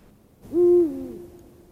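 A single deep, resonant hoot from a Eurasian eagle-owl, swelling quickly, holding steady, then trailing off with a soft tail. It is loud and heard alone over faint background hiss.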